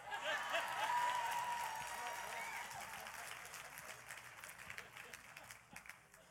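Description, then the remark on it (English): An audience claps in a dense, crackling burst of applause, loudest early on and tapering gradually over about six seconds, with some murmuring voices mixed in at the start. “Don't clap too much.”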